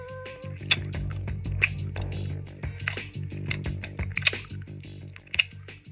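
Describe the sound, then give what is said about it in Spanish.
Wet chewing: a mother masticating food with irregular moist smacks and squelches, repeating over about six seconds above a steady low hum in the background. “La madre se ha despertado y mastica de nuevo.”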